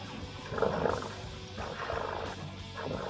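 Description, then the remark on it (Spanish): A person imitates a cat's purr with a low, continuous rumbling rattle, swelling in a few rhythmic pulses over about three seconds. “Mira, yo sé ronronear, weón.”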